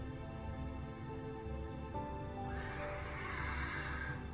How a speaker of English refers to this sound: There it is again. It's a horse.